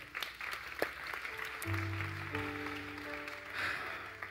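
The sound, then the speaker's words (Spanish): An audience claps steadily in a dense wash of applause for God, joined by sustained organ or keyboard chords that swell midway, with a few cheers rising near the end. “¿Alguien puede darle un fuerte aplauso a Dios por esto?”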